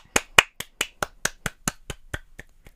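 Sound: one person clapping hands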